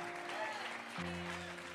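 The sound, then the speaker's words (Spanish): A crowd claps steadily and densely throughout, an audience applauding together, with sustained keyboard chords held underneath that shift to a lower chord partway through. “Vamos, dale tu mejor aplauso.”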